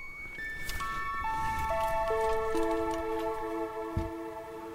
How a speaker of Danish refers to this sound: nu ringer klokken. På mit 250.000 kroners klokketårn.